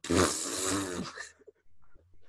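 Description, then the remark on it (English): A loud fart noise blown into the microphone, a buzzy, sputtering burst lasting about a second before trailing off into near silence. It sounds like a mouth imitation, a wet raspberry. “then whenever they try and like rap back at me, I'll just fart into the mic like.”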